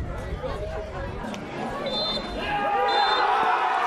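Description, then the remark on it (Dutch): A referee's final whistle sounds in two short high blasts at a football match over a busy crowd, whose cheering and chatter swell louder toward the end as SV Houten wins the championship and players, staff and supporters storm the field. “Ja, je hoort het al. Het fluitsignaal klinkt en SW Houten is kampioen.”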